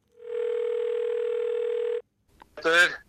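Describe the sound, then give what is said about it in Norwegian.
One steady, clear telephone ringback tone of an outgoing call to a father sounds for nearly two seconds, then cuts off; after a short pause a voice briefly speaks, as if someone picks up. “Jeg har ringt ham etter sending, og det skal vi høre på nå.”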